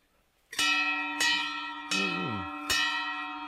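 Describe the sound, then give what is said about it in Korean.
A bell is struck four times at a steady, unhurried pace, each bright metallic ring sustaining into the next; loud, with no voices. The bell is rung to call the owner. “요 종도 요게 준 거예요, 이게. 요거는 이제 나 부를 때, 주인 부를 때 치는 거예요, 이게.”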